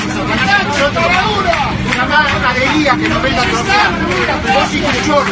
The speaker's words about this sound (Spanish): ¡Qué bulla!